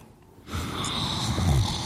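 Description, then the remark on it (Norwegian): After a brief quiet moment, a heavy breath from a person rasps in loudly and holds for over a second, with a rough, snore-like, breathy texture and no talking. “Du puster så tungt.”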